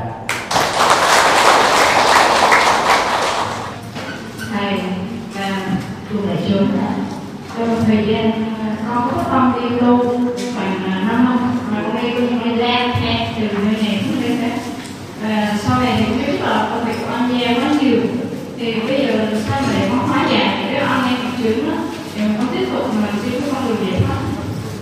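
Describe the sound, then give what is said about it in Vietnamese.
A crowd at a Buddhist retreat bursts into a loud round of applause approving a proposal to take questions, lasting a few seconds, a dense rush of clapping that cuts off abruptly before a voice begins speaking steadily. “nếu quý vị à, thích với cái đề nghị này thì xin à, dân cao tràng pháo tay”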